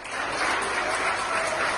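A crowd of hospital staff applauding steadily as a patient, an orderly who spent 12 days in the ICU, leaves the ICU for a ward: a dense, continuous patter of many hands clapping at once, with no voices standing out.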